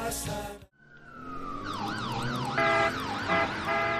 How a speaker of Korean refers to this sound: 사이렌 소리와 함께 119 구급대원 등장입니다.